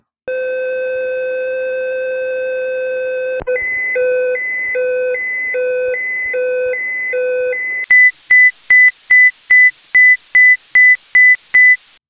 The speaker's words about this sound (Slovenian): Kakšno povezavo ima ta zvok siren z vesoljem? Uh, Pred časom sem naletela na podcast, ki se imenuje ESA Explorers, ki ga ustvarjajo pri Evropski vesoljski agenciji. Eno izmed epizod so posvetili različnim zvokom, ki jih astronauti poslušajo